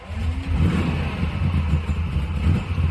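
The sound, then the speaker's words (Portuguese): A car engine revs and pulls away as a woman drives off, a loud, steady low rumble with a rising whine at the start as it accelerates. No one speaks. “Tomara que essa mulher dirija com calma, sem problema nenhum.”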